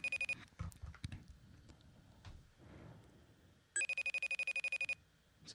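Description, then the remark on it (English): An Apple FaceTime audio call ringing tone as a call is placed: a rapid train of bright, high-pitched electronic pulses in two bursts, a short one at the start and a longer one near the end, with soft clattering between. “All right, so here's a FaceTime audio.”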